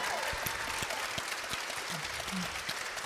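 A crowd applauds steadily for two guests from the University of Oklahoma on stage, a dense wash of clapping that fills the whole stretch, with a few faint vocal sounds poking through the noise.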